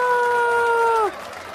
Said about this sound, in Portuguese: Novamente, salva de palmas!